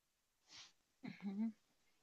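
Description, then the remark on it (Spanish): A single loud sneeze: a brief breathy intake, then a sharp explosive burst trailing into a short voiced 'choo' sound, followed by quiet. “Perdón, perdón, estornude.”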